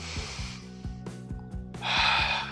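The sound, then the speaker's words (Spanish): A deep, airy breath drawn in and then let out as part of a breathing technique, fairly loud, with soft low tones in the background between the two breaths. “Inhalo y exhalo tres veces.”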